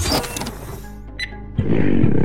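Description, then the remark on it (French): A low, rumbling animal growl from inside a crate, with a rough, grinding texture, sustained for a couple of seconds and swelling louder toward the end, with no talking over it. “J'ai l'impression que votre caisse grogne.”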